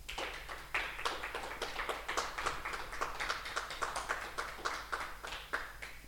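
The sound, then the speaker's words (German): The live audience of the radio show Neues aus der Literaturstadt Düsseldorf claps steadily for about six seconds after a poetry reading, a dense patter of many hands at an even, moderate loudness, with no voices over it. “Ja, das ist bestimmt dem Publikum auch nochmal einen Applaus wert.”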